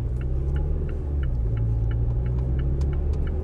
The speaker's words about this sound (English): You know, isn't it great to be back in the car? Isn't it great to be back on the ride in?